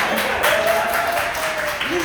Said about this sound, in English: yeah, my mom's here tonight, everyone. Clap for her. I actually have like a, a few families, so let's like keep clapping for everyone.